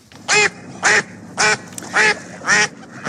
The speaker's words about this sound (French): Les cancanements de canards sur Radio Classique.